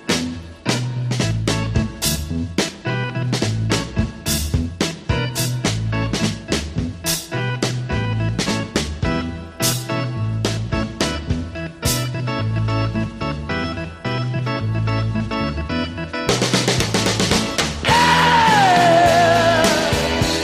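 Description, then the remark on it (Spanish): A driving rock track with a steady, punchy beat and guitars builds to a louder, denser section, where a high wailing scream slides downward over the band. “Y sobre todo me encanta ese principio, ese primer grito.”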